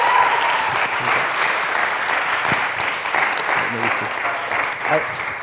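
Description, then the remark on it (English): A church crowd applauds steadily for a person given an ESV study Bible as a gift from the church, a dense wash of many hands clapping at an even loudness for several seconds, with faint voices and murmurs mixed in beneath the clapping. “We can clap or rejoice or sing or whatever.”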